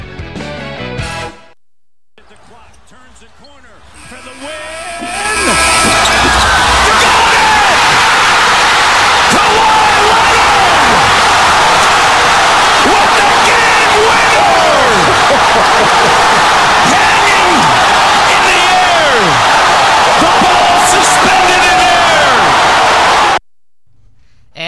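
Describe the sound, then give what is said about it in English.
An arena crowd cheering Kawhi Leonard's buzzer beater murmurs briefly, then erupts into a loud, sustained roar of cheering, with whoops and yells rising over the din for nearly twenty seconds before it cuts off abruptly. “Yes, that was the audio of Kawhi Leonard's buzzer beater from yesterday.”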